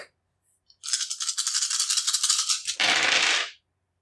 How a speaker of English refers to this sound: So I'll just re-roll one of these dice once because I've only got eight right here.